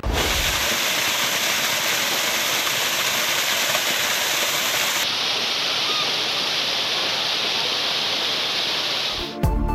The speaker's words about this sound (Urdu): ٹھنڈا ٹھار بہتا آبشار پانی ایسا جیسے موتی گلیات میں نملی میرا آبشار جو دیکھنے آئے اس کے سہر میں کھو جائے